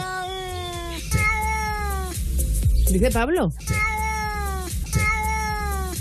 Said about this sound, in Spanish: El gato está hablando como persona, ¿sabes?